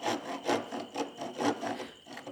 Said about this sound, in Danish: Saven er meget skarp